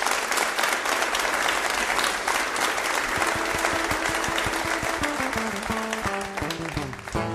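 An audience claps steadily and loudly throughout, a dense wash of applause welcoming a singer and his band to the Red Barn stage; about halfway through, the band starts playing underneath with clear musical notes rising beneath the clapping.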